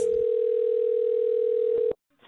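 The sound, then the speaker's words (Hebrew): A steady, loud telephone ringback tone of an outgoing call to a place that holds Christmas parties holds for nearly two seconds, then cuts off abruptly, followed by a brief quiet moment and the start of faint sound. “אז התקשרתי לכמה מהמקומות האלה שעושים מסיבות כריסמס.”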